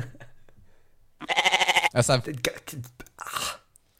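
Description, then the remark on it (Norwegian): A single loud, quavering sheep bleat rings out, followed by a stretch of people talking. “Jeg sa sau. Du sa sau, og … sier Sau.”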